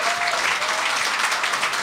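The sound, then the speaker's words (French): A steady burst of audience applause, a second round given for a guest, many hands clapping in a dense, continuous patter at an even loudness throughout, with no voices standing out. “On, lui a donné une bonne main d'applaudissement avant le podcast. On va y en redonner un autre.”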